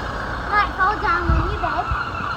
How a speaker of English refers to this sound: The Land Rover just navigating the very narrow street